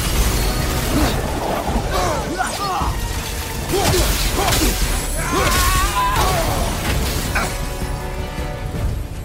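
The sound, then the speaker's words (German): Dense, loud battle sound effects: repeated whooshes like flying arrows as Atreus shoots his arrows at Baldur, sharp impacts, and icy crashing and shattering bursts from ice attacks being dodged, with scattered shouts or grunts layered into the continuous action. “Auch Atreus schoss mit seinen Pfeilen auf Baldur und wich den Eisangriffen aus.”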